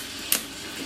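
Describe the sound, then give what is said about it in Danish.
A single sharp crack of a coffee bean in first crack, as roasting beans reach about 200 degrees and expand, pops out over the steady, hissing mechanical sound of the roaster drum moving the beans, brief, with no other cracks following. “De udvider sig i et ryg, og så giver det den her knæklyd.”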